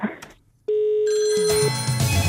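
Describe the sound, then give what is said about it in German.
A telephone rings loudly after a brief moment of quiet, opening with a steady tone that swells into a bright, continuous electronic ring. No one speaks over it. “ruft an.”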